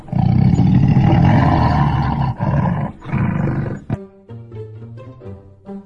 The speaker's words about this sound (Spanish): Tigre la derrumbó de un zarpazo y rugió de una manera muy, muy espeluznante